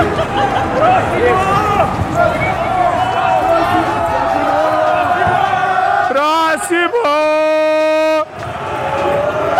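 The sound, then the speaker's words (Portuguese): A large crowd of attendees at Campus Party shouts and cheers while carrying chairs on their heads, a dense, continuous roar, then a single loud, drawn-out yell rises above it for a couple of seconds before the noise drops. “Esperaram, o gritaram”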